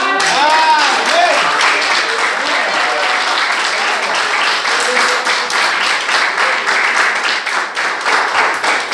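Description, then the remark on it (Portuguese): An audience breaks into sustained applause in adoration of the Lord Jesus, dense rapid clapping that stays loud and steady throughout, with some voices calling out faintly beneath it. “E eu agradeço a oportunidade e as palmas que adoram o Senhor Jesus.”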